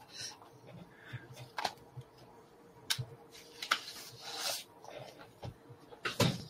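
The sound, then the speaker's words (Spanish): An office door lock being forced open in a few seconds: metallic scraping and rubbing broken by sharp clicks and clunks at irregular moments, fairly quiet overall, with no talking. “No te lleva más de, te lleva más de unos segundos forzar la, la cerradura de la misma manera.”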